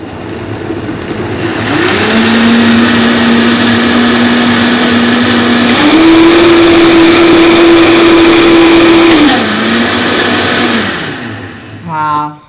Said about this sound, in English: It's gonna make noise. Okay. Then we're gonna blend it until it's nice and creamy.